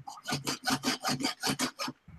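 Someone saws something with quick, rhythmic back-and-forth strokes, about eight rasping passes in a couple of seconds, steady, with no voices.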